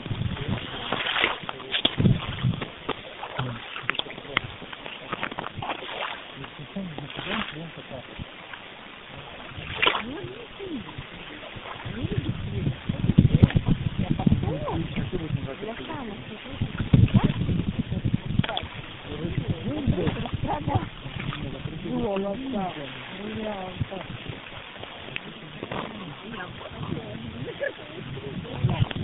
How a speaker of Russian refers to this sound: Я не знаю, что там записалось, но на самом деле несколько волн тут прибились.